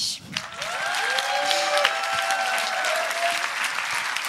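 Sustained audience applause, a dense steady patter of many hands clapping at even loudness, with a few faint whistles or cheering tones rising above the clapping.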